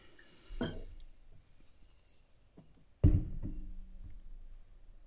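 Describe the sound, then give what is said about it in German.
A faint knock of glass, then a sharp clink as a drink starts pouring into a small glass, with a steady liquid gurgle that carries on for a couple of seconds. Nobody speaks. “Ja, wollen, wollen wir das mal ins Glas äh, äh, machen?”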